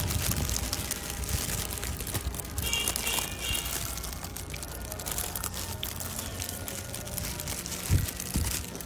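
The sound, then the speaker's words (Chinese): Crispy, freshly fried glutinous rice cake with homemade red bean filling being bitten and chewed, a steady crackly crunching at moderate volume with one sharper crunch near the end, and no voices. “因为是刚出锅的，所以特别脆，然后糯糯的。”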